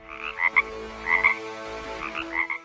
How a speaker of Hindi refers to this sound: उसके बाद मेढक ने एक बड़े गड्ढे के पास जाकर टर्राना शुरू कर दिया